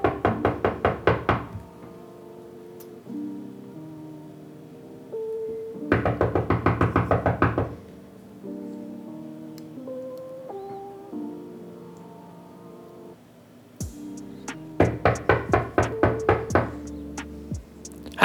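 Three bursts of rapid, loud knocking on the door of someone's home, each a quick flurry of raps, separated by several seconds of quiet filled with a low, steady tonal drone.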